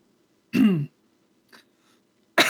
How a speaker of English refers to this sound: Apart from like coughing up a lung because I swallowed water down the wrong pipe, I don't know.